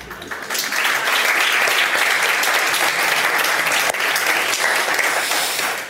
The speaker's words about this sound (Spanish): Gracias, eh, en primer lugar, gracias por este espontáneo aplauso. Gracias.